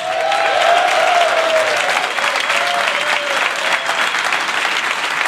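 Sustained applause from a crowd welcoming guests onto a show, loud and steady for several seconds, with a few whoops and cheers rising above the clapping.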